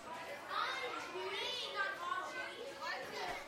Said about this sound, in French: En fermant mes yeux, j'entendais les enfants, ce fameux brouhaha.